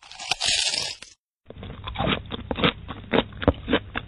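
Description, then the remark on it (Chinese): A piece of guoba (crunchy rice crust snack) being chewed: a dense crackling bite, a brief pause, then a run of loud, dry, brittle crunches in an uneven chewing rhythm, with no talking. “就十分豪爽的拿出一片锅巴，放在了自己的嘴里，边嚼还边说：“那挺脆的，你你听听。”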